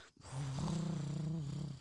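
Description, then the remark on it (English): A person imitates a deep lion purr with one sustained, low, rumbling growl from the throat, fairly loud, lasting over a second after a brief pause. “I want to hear a lion purr.”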